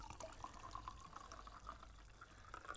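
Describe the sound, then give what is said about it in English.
Rossi wine pouring from a bottle held with two hands, in a steady stream with irregular gurgling glugs, fairly quiet, with no voices during the pour. “Now you tell me what wine bottle is supposed to sound like that.”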